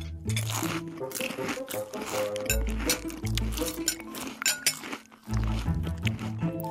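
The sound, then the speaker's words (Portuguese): Cutlery clinks and scrapes against plates as people eat toast and scrambled eggs at a table, a steady, busy stream of bright taps mixed with crunchy chewing sounds, with a low background hum underneath. “Comeram, comeram”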